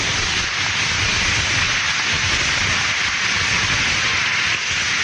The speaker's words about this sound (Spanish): Eso, un aplauso, por favor.